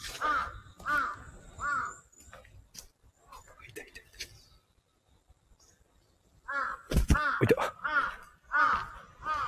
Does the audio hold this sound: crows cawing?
yes